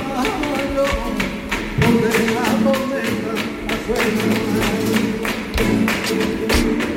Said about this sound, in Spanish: Está claro, ¿no? Con flamenco. Son unas palmas, ¿verdad? Unas palmas, claro.